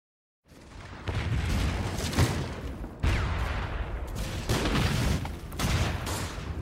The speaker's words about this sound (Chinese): 一九三七年七月七日夜，北平宛平县城隆隆的炮声击碎了卢沟晓月，全面侵华战争的硝烟夺去了平津高校的静谧。